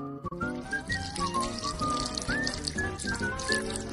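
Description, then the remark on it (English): A spilling liquid sound effect, oil glugging and splashing out in a steady, bubbly stream with quick rising chirps as a little monkey spills the oil while making a cake, lasting several seconds with no voices. “But one little monkey spills.”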